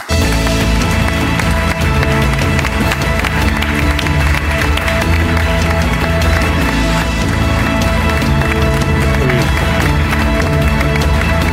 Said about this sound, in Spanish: Un aplauso para Tom Callen.